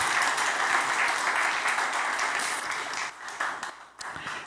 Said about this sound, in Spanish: un aplauso al Señor, está muy bien.